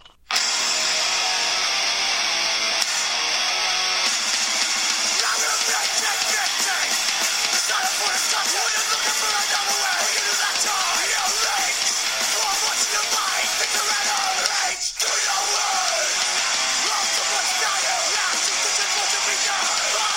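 A loud, dense rock song with heavily distorted guitars and shouted, yelling vocals plays continuously at full volume, with a brief dropout partway through.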